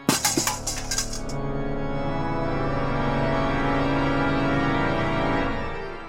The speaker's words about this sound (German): Laut scheppernd fällt der Napf auf den kalten Steinboden.